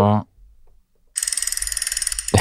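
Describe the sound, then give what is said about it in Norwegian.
A spinning wheel app sound on a mobile phone: a fast, steady stream of bright electronic ticks lasting about a second, clear, with brief bits of voice just before and right after. “du klarte å spinne wheelet. Ser lyset på mobilen der inne, at det er klart.”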